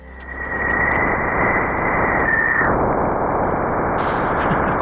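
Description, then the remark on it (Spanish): Radio emissions from Jupiter, recorded in situ by the Juno probe as it approached the planet: dense crackling static hisses steadily, overlaid by a thin whistling tone that holds level for about two and a half seconds and then stops, with a brief higher buzz near the end. “este es un sonido grabado in situ. Este lo, grabó la sonda Juno al acercarse a Júpiter”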